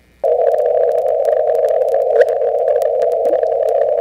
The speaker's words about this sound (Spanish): representar eh, el paso de la onda gravitacional por los detectores LIGO, que fueron los que la detectaron, es sonificar esos datos y vamos a ver ahora si son capaces de identificar el momento en el que la onda gravitatoria pasa por, por el detector.